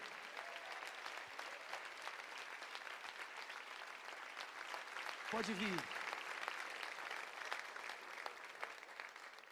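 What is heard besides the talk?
audience applause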